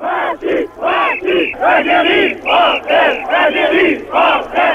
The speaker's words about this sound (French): un soulèvement de militaires très partisans de l'Algérie française pour marquer leur protestation contre l'autodétermination, et eh ben, Soustel euh, se sent très proche d'eux, très proche de ceux qui crient euh, Vive Massu, Massu, Algérie française.